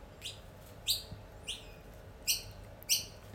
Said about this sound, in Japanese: えー、鳥さんがね結構たくさん、えー、寄ってきて泣いております、えー、皆さんね鳥さんもねおめでとうって言ってますんでね、えー、収録しております